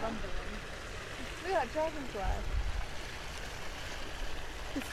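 Steam rushes out of a vent in a barren patch of ground with little vegetation, in a steady, broad hiss that fills the whole clip without pause, with a faint voice murmuring briefly underneath.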